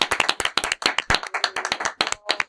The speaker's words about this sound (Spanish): Chicos, un aplauso para despedirlos.